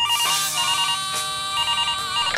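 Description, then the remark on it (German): A telephone rings before a live radio phone call, with a bright, electronic warble, repeating its trill several times in a steady pattern, loud with no voices. “Hier ist das berühmteste tägliche Telefongespräch des Landes.”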